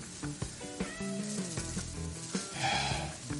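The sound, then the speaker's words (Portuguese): A steady crackling hiss runs through the whole recording, like sizzling static. Muffled tonal sounds come and go beneath it at a moderate level. “O som está chiando, peraí.”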